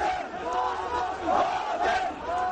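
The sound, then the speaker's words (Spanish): A crowd of about a hundred people clamors loudly and continuously outside the vizier's house in ancient Egypt, many overlapping voices shouting and calling out at once, dense, with no single speaker standing out. “Como podréis escuchar, hay un follón considerable, y es que me encuentro en las inmediaciones de la casa del visir, donde se han reunido un centenar de personas que están armando un gran alboroto.”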